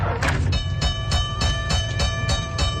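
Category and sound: vehicle, train rolling on rails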